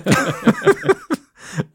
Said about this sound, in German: Nichts Schlimmes übrigens. Ähm, nur Husten.